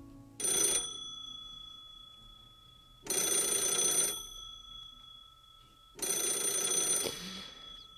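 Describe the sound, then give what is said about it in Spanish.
An old landline telephone bell rings three times, each ring a loud, rattling burst of about a second separated by roughly two seconds of near silence, with no voices. “es un sonido que no tiene que ver con los teléfonos móviles actuales, un sonido así.”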